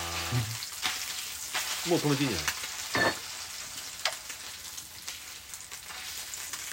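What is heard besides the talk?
pork belly sizzling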